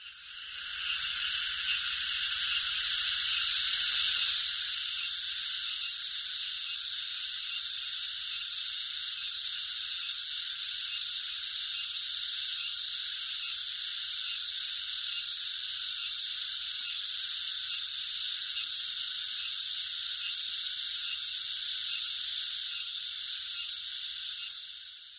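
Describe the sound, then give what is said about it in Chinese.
A dense chorus of cicadas buzzes in midsummer in a steady, high-pitched drone that holds at an even loudness for the whole stretch, with no pauses and no voices. “我记得有一年夏天，我去录过盛夏的蝉鸣声，为了这一次录制啊，文字可吃得饱饱的了。”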